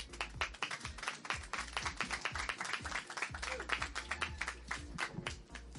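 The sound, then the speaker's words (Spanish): An audience at a discussion panel (conversatorio) applauds to welcome a panelist, a dense patter of many hands clapping steadily for several seconds at an even, sustained level without a clear fade. “la recibimos con un aplauso, por favor.”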